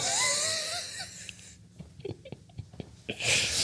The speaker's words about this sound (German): Und die eine Katze ist lustig, denn wenn die miaut, klingt das so wie ich, wenn ich pupse.